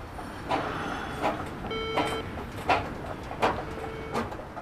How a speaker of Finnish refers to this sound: Laskeudutaan kuitenkin nyt Petrin mainitsemat liukuportaat Kuopion torille.